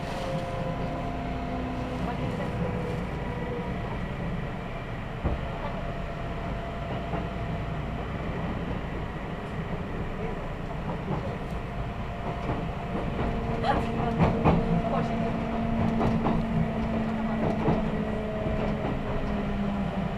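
A small narrow-gauge train of the Yokkaichi Asunarou Railway rumbles steadily along the rails from Hinaga to Yokkaichi, Japan, heard from inside the carriage, with a low droning motor, occasional clicks and squeals from the track, growing a little louder toward the end.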